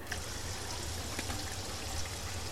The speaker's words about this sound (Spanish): Voy a hervir un poco de agua.